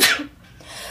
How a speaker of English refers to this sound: Bless you.